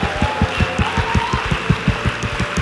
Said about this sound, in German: Komm, können wir, können wir mal diesen Leuten mal einen richtig großen Applaus geben? Hey, mega.